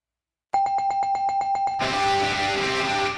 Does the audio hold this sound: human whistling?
no